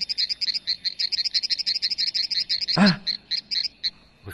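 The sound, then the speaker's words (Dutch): A plant's stress response to being cut, turned into sound: a rapid, steady train of high, chirping pulses, like a croaking frog, broken briefly by one louder noisy burst, with no one speaking. “Wat u hoort is de reactie op stress van de plant.”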